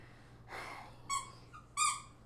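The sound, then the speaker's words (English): A dog howls: a breathy whimper, then two short, tonal howls a beat apart, the second louder and fuller, with no one talking. “Guys, my dog just wants to sing to you for a moment.”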